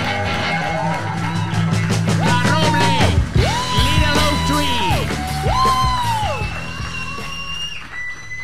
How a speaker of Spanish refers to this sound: Fuerte el aplauso para la colaboradora de hoy.